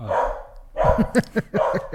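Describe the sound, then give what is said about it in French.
A dog barks several times in quick, uneven succession, fairly loud, right after a person's brief exclamation. “C'est mon chien.”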